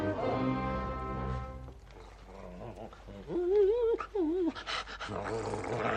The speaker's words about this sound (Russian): Друзья мои, друзья мои, посмотрите, что делается с Диком. Собака в страшном волнении. Дик! Динго! Динго, Динго, мама, смотри, Динго как будто плачет.